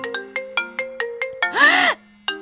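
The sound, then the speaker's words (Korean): A phone ringtone for an incoming call plays a quick, regular series of bright electronic tones, followed by a brief swelling musical flourish and one more tone, loud with no voices. “아니, 드디어 천식이한테 전화가 걸려온 거예요.”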